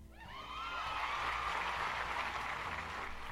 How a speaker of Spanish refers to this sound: Ahí estaban los condenados aplausos.